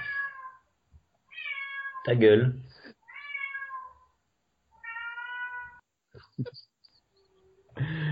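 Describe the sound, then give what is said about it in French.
A cat meows loudly several times in drawn-out, wailing cries separated by short pauses, with a brief voice cutting in once between them. “voilà, j'ai un chat qui agonise, excuse-moi.”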